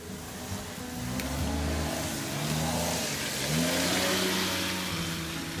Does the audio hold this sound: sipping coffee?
no